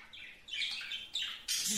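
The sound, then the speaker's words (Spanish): Small birds in a shop where birds are sold chirp and twitter in quick overlapping bursts, a busy cluster of high, bright calls that swells in short waves, with no voices over it. “pues un vato, un vato llegó ahí donde vendían pajaritos.”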